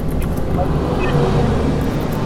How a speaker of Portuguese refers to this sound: Desculpa, passou avião.